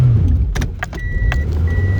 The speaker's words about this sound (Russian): Свернул не туда, пропускал машину.